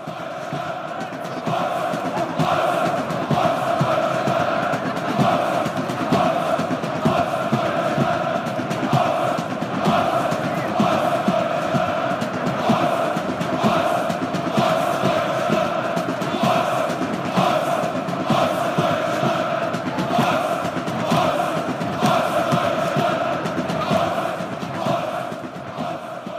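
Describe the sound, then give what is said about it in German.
A large crowd of Dynamo Dresden football fans chants in unison, a dense roar of many voices holding steady, rhythmic shouts that pulse on and on without a break for the whole stretch. “okay, also das skandieren Leute Ostdeutschland, das kann ich äh, entnehmen.”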